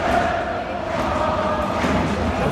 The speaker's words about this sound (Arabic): التي نسمعها هنا هذا آه، ال... تشجيع المشجعين بعد نهايه اللقاء نعم.